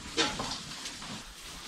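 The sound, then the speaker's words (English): A younger group of pigs, recently put in the hoop building, squeal and grunt inside the hoop barn, one sharp squeal up front followed by softer scattered grunts over a steady, hissy barn background. “Now this group of pigs is uh, a uh, younger set.”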